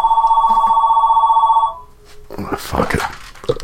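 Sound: telephone ringing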